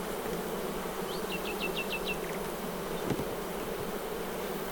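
A steady, dense buzzing of honeybees at an open hive fills the whole recording at an even level, with a short run of about six high bird chirps briefly rising above it.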